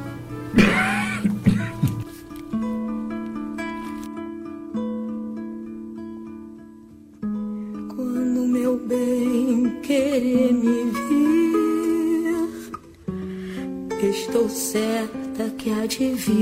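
A woman sings a slow, dramatic theatre song, holding long notes with wavering vibrato over a sustained instrumental backing, steady and moderately loud throughout.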